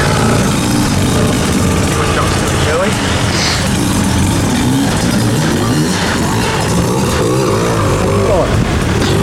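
A two-stroke dirt bike revs hard and continuously as it rides up a river, its engine pitch rising and falling over a steady wash of splashing water, loud throughout.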